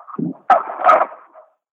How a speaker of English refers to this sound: I do love the sound of dogs sounding like they're happy.